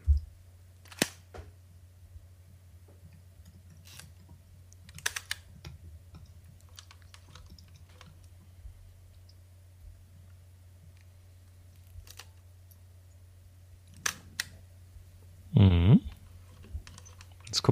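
Sparse, sharp mechanical clicks from an old heirloom folding camera's shutter and wound-up long self-timer, tested to see if the mechanism still works, then a louder, low buzzing whir as the timer runs down near the end, closed by a final click.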